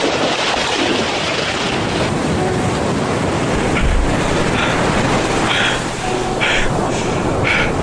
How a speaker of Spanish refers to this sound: Tras el brutal impacto contra la superficie del mar, don Luis hizo un gran esfuerzo por mantenerse a flote